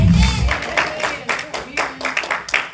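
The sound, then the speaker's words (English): An audience claps hands in praise to God, a steady patter of many overlapping claps with sharper bursts throughout, with some indistinct voices mixed in at the start. “And if you believe that, then I give God a good hand clap of praise.”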